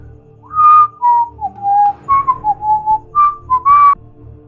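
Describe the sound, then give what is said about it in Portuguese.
Someone whistles a short melodic tune of about eight sliding notes, clear, coming from behind a rock, over a steady low background hum. No one speaks. “Então todos que têm ouvido, que estão nesse lado, conseguem ouvir vindo de, de trás da pedra agora esse assobio.”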